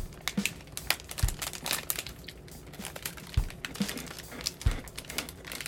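Crinkly plastic wrapper rustling and crackling as a sealed Hato Sablé cookie package is opened, with sharp irregular crackles and a few soft thumps, no talking.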